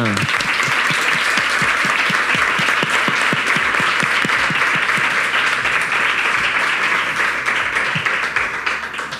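Sustained applause from an audience, dense and steady clapping filling the space for several seconds before beginning to thin out at the end.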